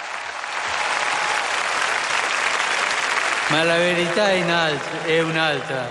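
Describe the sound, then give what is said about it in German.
A huge crowd of young people roars and claps in a dense, steady wash of noise, then bursts into loud, drawn-out collective shouts of "yes" in reply to questions from Pope Francis over the cheering in the second half. “Ja, schreit die Menge.”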